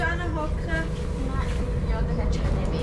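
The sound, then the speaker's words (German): Loud, steady rumble fills a moving train carriage, a constant low roar with murmuring voices of nearby passengers blending into the din throughout. “Okay, es ist sehr laut in dem Zug, wie man vielleicht kann hören kann.”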